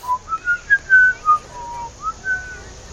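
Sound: person whistling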